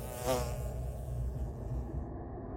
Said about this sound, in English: a regular bee. It's just going to go go in and come back.